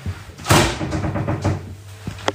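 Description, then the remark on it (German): A refrigerator door is pulled open with a brief broad whoosh, followed by a steady low hum and a faint rattle, then a single sharp click near the end. “Kommt hier doch mein Kühlschrank, Freunde.”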